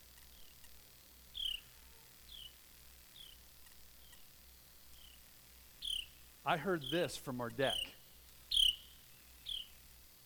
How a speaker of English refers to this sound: And I thought, oh, wow. I know that one. That's the Carolina wren. In fact, a couple years ago, I was sitting on the deck in Tennessee, and I heard that same sound.